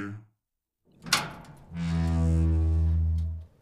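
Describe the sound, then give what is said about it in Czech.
A heavy metal door lands with a single sharp thud, then a long, low, droning rumble rings out for nearly two seconds before cutting off. No voices. “Hm, jsme tu. Kovové dveře.”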